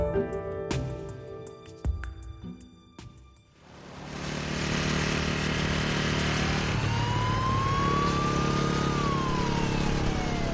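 After a few seconds of quieter tonal sounds, a motorcycle engine roars loud, holding a steady rumble while a high whine climbs and falls.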